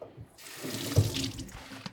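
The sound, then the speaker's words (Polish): Water from a kitchen sink tap gushes and splashes steadily over a Lenovo ThinkPad Nano laptop as it is rinsed, a continuous hiss with a brief louder splatter near the middle, no voices. “Y, jesteśmy przy zlewie w kuchni Lenovo.”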